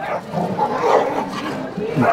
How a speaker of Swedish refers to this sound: en hund som skällde på honom. Eller det kanske skällde på andra hunden, men det var alltså Ulf Kristersson och hans fru. Tänk om det var Winston, den här kända hunden från Instagram, som var med här och markerade mot husse.